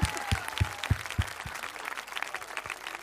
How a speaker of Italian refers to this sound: Applauso!